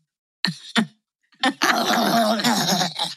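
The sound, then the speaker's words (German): A voice imitates loud, sloppy kissing: two quick smacking bursts, a short pause, then a long wet, slurping and moaning stretch, noisy, with no one speaking. “So hört sich das an, wenn ich knutsche.”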